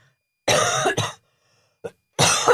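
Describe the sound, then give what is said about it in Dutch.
Several harsh coughs in quick bursts from a person with a lingering cough: a long rasping cough with a second catch right after, a short faint hack, then another strong cough. No talking. “Je bent nog steeds niet van je hoesje af? Nog steeds niet van mijn hoest af.”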